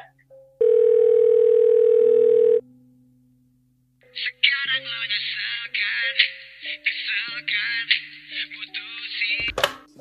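A telephone ringback tone plays while hosts call their guest: one loud, steady electronic beep lasting about two seconds, then a pause, then a bright, warbling electronic melody with stepping notes.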